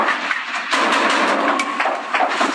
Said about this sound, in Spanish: Pero escuche la metralla. En primer plano. Y también la nutrida respuesta de metralla a lo lejos.